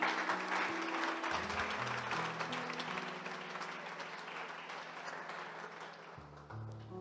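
An audience claps steadily for about seven seconds, a dense, sustained wave of applause that stays loud throughout, with low sustained musical tones running underneath.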